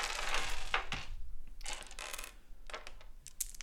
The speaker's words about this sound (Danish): Og øh, der har jeg taget nogle terninger med her. Nu skal jeg prøve at se, om jeg kan finde dem uden at larme alt for meget. Så gør vi bare sådan her.